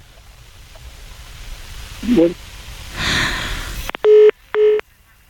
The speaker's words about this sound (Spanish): A ver, es que, como está dentro del túnel, ahí tenemos problemas con la comunicación celular.